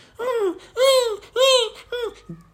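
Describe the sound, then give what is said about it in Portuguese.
A person imitates a Yorkshire terrier that does not bark whimpering: four high-pitched whiny yelps that rise and fall, the last one shorter and trailing off into a brief low murmur. “Tipo, o máximo que faz é aqueles barulhos de.”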